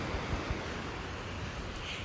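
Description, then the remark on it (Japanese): A steady, hissing wash of surf rolls on without pause, with low rumbling beneath and a faint breezy roughness, as waves break along a beach on the coast in autumn. No one speaks. “今、海岸に来て、海岸に座って配信しております。”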